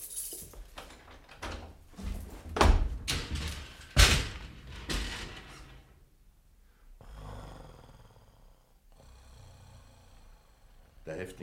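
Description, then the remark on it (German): A prison cell door, cell number 13, is unlocked and swung open with a run of metallic clanks and rattles, two sharp louder knocks standing out, then a quieter stretch with a low, steady rumble. “Schließen Sie die Zelle Nummer 13 auf und bleiben Sie in der Nähe.”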